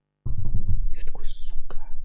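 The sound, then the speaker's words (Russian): A voice imitates hoofbeats with a quick series of low, rhythmic clopping mouth sounds, then shifts into breathy, hissing whisper-like bursts, with no clear words spoken. “копыта. Это звук копыт.”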